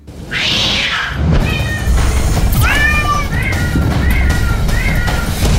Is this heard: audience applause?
no